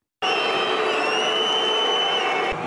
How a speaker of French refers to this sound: On entend d'abord le public qui siffle parce qu'il comprend qu'il doit partir, et puis écoutez le speaker.